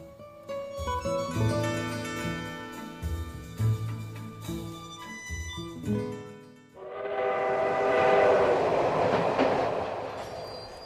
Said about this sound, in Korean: 그녀가 언제쯤 시간이 날지 몰라 무작정 첫 차를 타고 내려가 부산 출발 열차가 도착하는 플랫폼에서 마냥 기다리고 앉아 있었습니다.